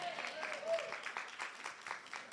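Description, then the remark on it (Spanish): An audience applauds in a dense, steady wash of many hands clapping for a couple of seconds, with faint voices or calls mixed in beneath. “Este lado aplaudió, este lado no sé si, si lo recibió o no.”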